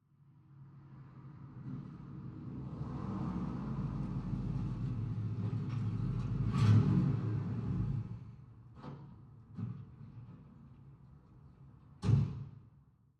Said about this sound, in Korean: 시계와 침묵 사이의 대화를 다시 방해하는 소리가 났다. 울퉁불퉁한 도로를 덜컹거리며 구르는 타이어 소리. 차가 멈췄다.